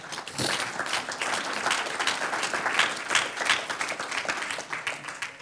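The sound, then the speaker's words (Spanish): A crowd applauds steadily, dense overlapping claps forming a continuous wash of sound that holds at a fairly even, moderately loud level for several seconds. “Un aplauso al Señor.”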